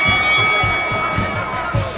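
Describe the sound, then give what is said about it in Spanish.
A protest crowd shouts the repeated Spanish slogan "traidores" (traitors) in loud, rhythmic bursts, the massed voices rising and falling about every half second over a dense, steady roar. “Se encachimban y les gritan que eh, traidores. Sí, sí, eso están gritando, traidores.”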